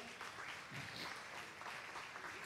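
An audience applauds together, a dense, steady wash of clapping from many hands filling the room for a few seconds without any voices over it.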